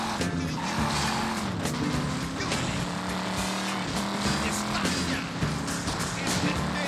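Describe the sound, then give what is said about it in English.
A video game car roars and skids with screeching tires, punctuated by several sharp crashing impacts that badly damage the car, loud and continuous throughout with a steady engine drone underneath. “Oh, this is actually damaging my car pretty bad.”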